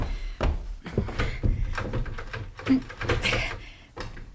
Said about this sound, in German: Die Tür klemmt.